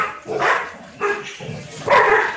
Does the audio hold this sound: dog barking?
yes